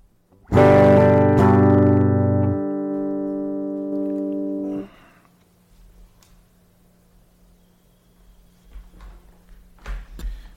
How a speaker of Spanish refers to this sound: Quería hacer una pequeña probita de sonido, eh, si me pueden permitir. Escuchen mi guitarra ahí.